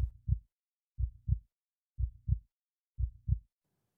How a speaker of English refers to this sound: there came to my ears a low, dull, quick sound, such as a watch makes when enveloped in cotton. I knew that sound well, too. It was the beating of the old man's heart.